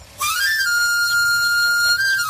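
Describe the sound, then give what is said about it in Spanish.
A knife grinder's panpipe whistle sounds alone: a quick upward sweep settling into one bright, sustained reedy note with strong overtones, held for about two seconds before dipping slightly at the end. “El afilador.”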